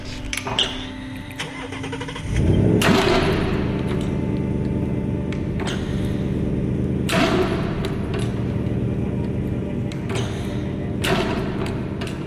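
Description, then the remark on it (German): A combustion engine cranks and catches at about two seconds, then settles into a steady, rumbling idle of rapid, regular cylinder firings, loud, with a few sharp revs and clanks along the way. “wird jetzt hier die Füllung in den Zylinder freigeben.”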